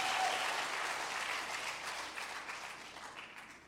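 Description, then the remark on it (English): A crowd applauds a couple's coming 30th wedding anniversary with dense, steady hand clapping, holding strong before gradually thinning and fading toward the end. “I need a better hand clap for 30 years of marriage.”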